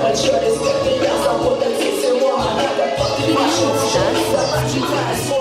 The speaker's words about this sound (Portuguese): Este é o som dos …, grupo de hip hop russo.